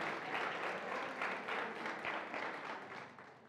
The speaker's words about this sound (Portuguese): Amém. Pode aplaudir o Senhor.